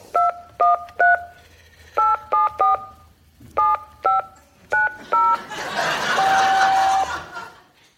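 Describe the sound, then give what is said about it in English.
About a dozen crisp telephone keypad tones beep in quick clusters as someone dials to make a phone call, followed by a loud rushing hiss with a steady electronic tone running through it. “Think about it while I make a phone call.”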